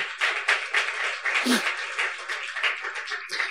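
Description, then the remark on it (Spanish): A crowd claps steadily for the women in a dense, continuous burst of applause lasting a few seconds, with a moderately loud, even texture of many overlapping hand claps. “Vamos a darle un fuerte aplauso a las mujeres.”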